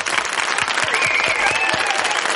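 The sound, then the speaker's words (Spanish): Steady, dense applause for healthcare workers from a group of people, many overlapping claps forming a continuous loud patter with a few louder individual claps and a faint whistle-like tone partway through. “Sanitarios, y da un aplauso, coño.”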